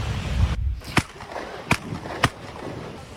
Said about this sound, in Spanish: Pedradas y disparos son lo que se escucha.